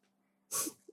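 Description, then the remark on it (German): A breathy sniff from a small nose sniffing at a companion: one loud, hissy snuffle followed by a quick, softer puff, with no voices around it. “Oh, wer riecht denn da mit seinem kleinen Näschen an einem Kameraden.”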